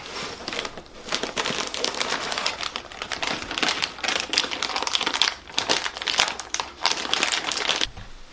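Construction paper being crinkled and crumpled, a continuous run of crisp, crackling rustles with irregular bursts, no voices present.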